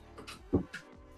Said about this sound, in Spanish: Ay, cómo chinga ese gato, qué barbaridad.